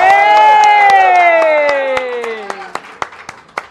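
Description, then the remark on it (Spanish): A live studio audience lets out a loud, sustained cheer that slides downward in pitch, with scattered hand claps throughout; the cheer fades and a few sharp claps continue at the end. “Que es que hoy por primera vez estamos haciendo un programa con público y eso está padre.”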